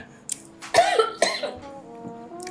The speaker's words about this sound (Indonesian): gue ngomong sampai nahan-nahan batuk